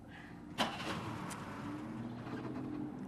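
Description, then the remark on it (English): A car engine catches with a sharp burst, then settles into a steady, low idling rumble as it is left running outdoors to warm up, with no voices. “I'm letting the engine run. I'm getting it warmed up.”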